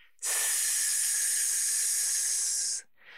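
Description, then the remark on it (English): A steady, sustained hiss from a person exhaling through the teeth while pulling the abdominal muscles in to push the air out, fairly loud, lasting about two and a half seconds before cutting off abruptly. “And as you're pushing the air out, you're going to make a hissing sound.”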